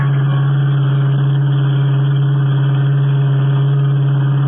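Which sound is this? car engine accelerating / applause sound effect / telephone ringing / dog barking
car engine accelerating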